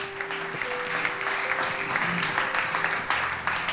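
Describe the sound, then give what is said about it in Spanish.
An audience breaks into sustained applause for the word of God, a dense, steady wash of many hands clapping at once, loud and continuous throughout, with a faint tonal hum running underneath. “Le da un fuerte aplauso a la palabra de Dios.”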